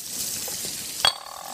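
Prawns with a bit of chili sizzle steadily in butter in a hot pan taken off the stove, a continuous frying hiss, broken near the end by a single sharp metallic clink with a brief ringing tone.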